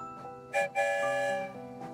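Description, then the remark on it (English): A single steam-style train whistle blast signalling departure sounds loud, a rich multi-tone wail lasting about a second with a brief breathy hiss at its start, then fading out. “One whistle, we're on our way.”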